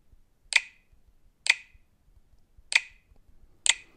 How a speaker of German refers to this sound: Super geheimes Passwort, also das würde ich euch ja nie weiter verraten. Wir haben jetzt sechsmal das kleine A eingetippt und ähm, jetzt gehe ich mal hier wieder, einfach tippe ich irgendwo in den Bildschirm rein.